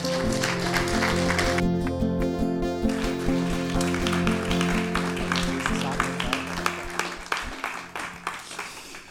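An audience applauds steadily for about nine seconds to welcome a speaker onto the stage, a dense crackle of many hands clapping over a sustained, tonal musical backdrop, thinning out toward the end.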